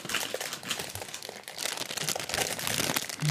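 Continuous crinkling of a plastic snack bag as a hand rummages inside, with irregular rustles and crackles that swell louder toward the end; no one speaks.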